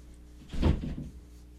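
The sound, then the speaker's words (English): A door opens with a single brief, muffled knock and rattle as someone walks in, over a low steady background hum, with no one speaking. “my brother just yeah. walked in the door.”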